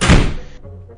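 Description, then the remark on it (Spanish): A door slams shut on a neighbor with a single heavy thud, its low boom quickly fading into a brief muffled rumble. “¿Cómo me va a cerrar la puerta”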